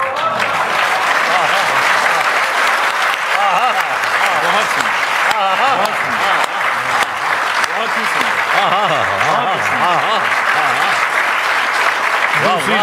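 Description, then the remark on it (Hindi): Sustained, loud audience applause fills the whole stretch, a dense steady clatter of many hands, with overlapping voices cheering and calling out beneath it. “तालियों को रोकने मत दीजिएगा”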